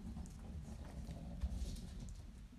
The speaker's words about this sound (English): Um, sorry if you hear noise. That's our cat.